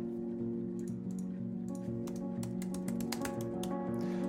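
Rapid, uneven clacking of keys as a woman types on an old white AZERTY computer keyboard from the 1980s, a dense run of sharp taps over a constant low electrical hum, with no voices.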